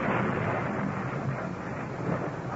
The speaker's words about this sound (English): The night before the prophesied doom of the Ides of March, the elements provide a fit setting for the gathering storm. That 15th of the month, the city of Rome is racked by a wild electrical storm.